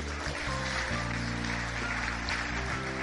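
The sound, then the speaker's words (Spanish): A crowd applauds the king steadily and fairly loudly, a dense wash of clapping from many hands, with sustained low musical tones running underneath throughout. “Dale el aplauso al rey”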